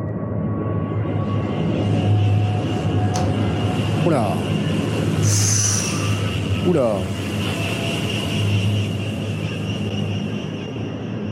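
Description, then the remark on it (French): A dense, sustained ambient drone hums steadily throughout, layered low and high tones holding without pause, while a voice briefly exclaims a couple of times over it. “Voilà, ce genre de choses, par exemple très bonne illustration. Un drone.”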